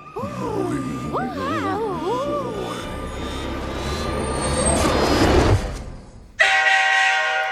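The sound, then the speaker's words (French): A toy train set's sound effect plays: warbling whistle-like tones over a chugging rumble that swells, a brief pause, then a loud, steady horn blast to finish. “En plus, c'est le bruit que vous avez entendu, ça vient du set.”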